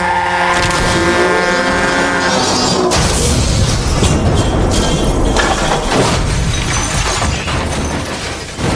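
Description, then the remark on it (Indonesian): A sustained engine or horn drone cuts off in a sudden loud crash as a speeding car collides with a passing truck, followed by several seconds of crunching metal and shattering glass. “Tanpa bisa dihindari lagi, mobil dan truk tersebut bertabrakan.”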